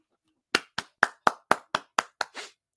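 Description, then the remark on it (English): A single pair of hands claps about nine times in a quick, steady rhythm, each clap sharp, with the final clap slightly softer and more muffled, in applause for Robbie Gould. “Round of applause.”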